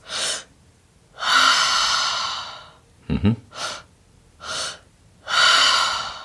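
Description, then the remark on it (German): Several deep breaths, drawn first into the belly, then up into the chest, then exhaled fully relaxed through the mouth: long airy inhales and slow exhales in a steady rhythm, with a short murmured hum partway through. “dann zieht man hoch in die Brust und dann atmet man komplett entspannt aus durch den Mund”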